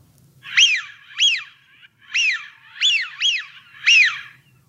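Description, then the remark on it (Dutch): A Eurasian wigeon gives six clear, rising-and-falling whistles, fairly loud, in two quick bursts separated by a brief pause, with no voices. “En dan wil jij natuurlijk ook eventjes het geluid van een smint horen, stel ik me zo voor.”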